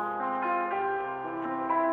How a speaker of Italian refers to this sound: L'avete già sentita? Per Elisa di Beethoven.